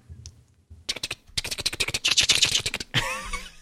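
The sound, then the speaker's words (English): Fast typing on a computer keyboard: a dense, irregular run of key clicks lasting a couple of seconds, followed by a short rustling scrape. “we need to get you a louder keyboard.”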